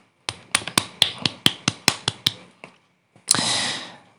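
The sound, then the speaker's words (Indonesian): About ten crisp hand claps ring out in a steady, quick rhythm, followed after a short pause by a brief, dense wash of applause-like noise. No one speaks. “Ya, tepuk tangan untuk diri kita semua.”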